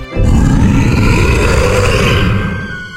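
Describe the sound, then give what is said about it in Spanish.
A single loud, sustained roar from an ugly green broccoli monster lasting a few seconds, deep and growling with a rough, rumbling texture, fading out at the end. No one speaks. “Me gusta rugir con rugidos temibles y crujir mis dientes terribles.”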